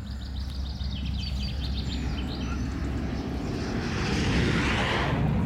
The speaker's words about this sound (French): Et celui-là, c'est mon copain. L'avion, c'est ton copain Ouais, c'est un ami. Mais il, il- il passe comme ça.